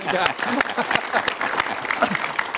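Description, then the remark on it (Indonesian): A burst of steady clapping from a group of people, sustained throughout, with some faint voices mixed in underneath, applauding a man. “Wah, tepuk tangan dong buat Pak”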